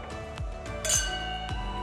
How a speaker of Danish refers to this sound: Øh, og så er der ikke rigtig mere at gøre end at, at sige, øh, sige tak for, for rigtig god øl. Og så, øh, så vil, vil jeg skåle ud og sige, øh, ja. sige tak for i dag.